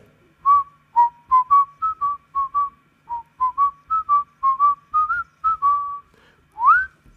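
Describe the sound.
Someone whistles a TV quiz show theme, a bouncy melody of about twenty short, clear notes in a steady rhythm, ending on a rising swoop, with no talking.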